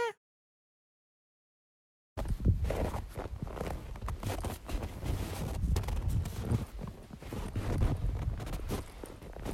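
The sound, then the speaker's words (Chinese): Footsteps crunching through snow, recorded in 2019, start after about two seconds of silence, a steady, fairly loud run of gritty, rhythmic crunches with a soft rustle between steps and no voices. “你刚刚听见的是一段来自2019年的采雪声。”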